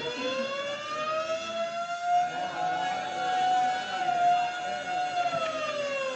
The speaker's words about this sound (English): Time passes. Ten minutes, twenty minutes, a half hour, and suddenly the quiet routine of the prison is broken by frantic bells and the shrieking wail of the siren.